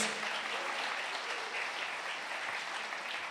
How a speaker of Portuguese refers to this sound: Glória a Deus. Quem pode dar um aplauso a Jesus aí?